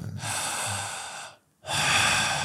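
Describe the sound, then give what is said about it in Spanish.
Two long, forceful breaths during a breathing exercise, one in and one out, each about a second and a half with a short pause between. Loud and airy, with no talking. “bien honda, talando el aire, eso, inflarte y desinflarte, poquito más profundo, una respiración jadeante, intensa, potente.”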